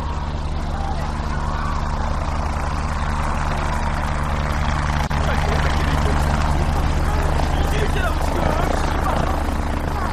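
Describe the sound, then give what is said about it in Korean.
A helicopter drones overhead, its rotor thumping steadily and loud throughout, with a constant low engine rumble; indistinct voices murmur faintly beneath the noise. “헬기 소리 들려.”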